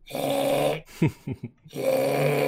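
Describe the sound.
A person imitates a deer snorting outside their window at night, around 12:30 to 1 o'clock: two long, harsh, breathy snorts framing a few short grunting huffs, loud, with no words spoken.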